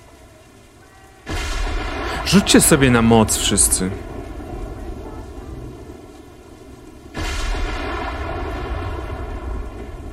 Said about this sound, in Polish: Po pewnym czasie usłyszeliście też pierwsze wybuchy, burze. Sztorm prawdopodobnie nadszedł z morza.